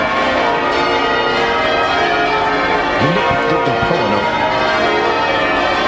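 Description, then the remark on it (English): Great Paul, the largest church bell in Britain, tolls at St. Paul's Cathedral in London at the end of a Thanksgiving service, its deep, resonant ringing hanging in the air and overlapping throughout, loud and full, with a fresh strike swelling about midway and no voices. “Paul's Cathedral in London uh, this morning, and it ended with the tolling of Great Paul, the largest church bell in Britain.”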